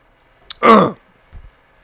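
A single harsh throat-clearing cough, fairly loud, preceded by a quick sharp intake and followed by a faint low rumble, with no talking.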